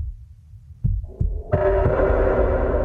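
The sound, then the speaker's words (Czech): A heartbeat sound effect used as the heart motif in a production, with music composed by Ivan Acher: deep, muffled thuds pulsing in a steady rhythm, soon joined by a swelling sustained musical drone that builds underneath the beats. “A snažila jsem se ho přesvědčit, že Eh, že tam to srdce potřebujeme zvukově.”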